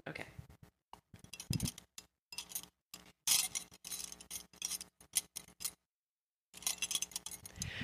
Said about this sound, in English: I brought some jewelry here and I'm just going to just clang it together. Hang on a second.